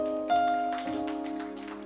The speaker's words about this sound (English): And ladies and gentlemen, those who have come, who are seated in the congregation, you're welcome. Clap for yourselves in Jesus' name.